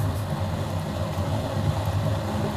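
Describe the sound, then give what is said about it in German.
Steady low rumble of a car's interior while driving back to Frankfurt, a constant droning road and engine noise that stays even and moderately loud throughout, with no voices. “So, wie ihr hört, sitzen wir wieder im Auto.”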